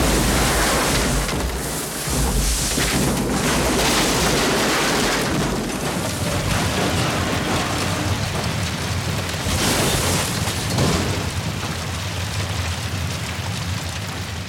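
An airplane crash sound effect: a loud, steady roar of rushing noise, with a deep rumbling drone underneath for the first few seconds before it gives way to hissing wind-like noise. No voices.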